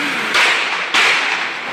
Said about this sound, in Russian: По словам очевидцев, в конфликте участвовали не менее 10 человек. Один из прохожих оказался в эпицентре беспорядочной пальбы и снял происходящее на телефон.